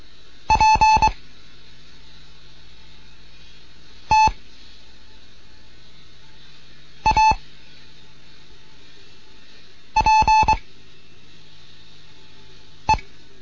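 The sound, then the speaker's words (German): Morse code practice tones from a beginners' Morse lesson by station DGOT 1 Kilo November in Bremen, an exercise with the letter P: short, clipped beeps at a steady mid-high pitch, sounded in small groups of dots and dashes separated by pauses of about three seconds, with a faint hiss underneath. “Hier ist DGOT 1 Kilo November in Bremen mit einem Morseunterricht für Anfänger es kommen jetzt U Übung mit P.”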